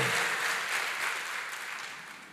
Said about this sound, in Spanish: ¿Cuántos dicen amén? Dele fuerte ese aplauso al Señor. Colóquese en pie.